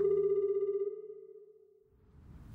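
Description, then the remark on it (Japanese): A single sustained electronic telephone ringing tone for an outgoing call to a taxi company, steady and fairly clear, fading out over a second or two into faint background noise. No voices. “次の日私はタクシー会社に電話を入れた”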